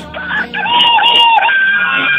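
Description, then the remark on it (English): A person imitates a rooster's crow, one loud drawn-out call with a rising then sustained wavering pitch, alone for about two seconds. “There's the crow.”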